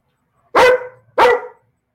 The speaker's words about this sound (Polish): ja mam teraz taką nieśmiałą propozycję, żebyśmy zrobili krótką przerwę muzyczną, a po przerwie może przestanie piesek szczekać i mikrofon.